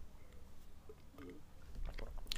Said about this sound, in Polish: Łyknąłem sobie wody, żeby to przypieczętować teraz, o czym, o czym mówiłem.